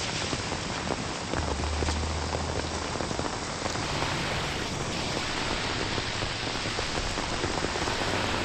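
Steady rain patters densely on hard surfaces, a constant hiss of countless drops with no pauses, filling the scene without any voices.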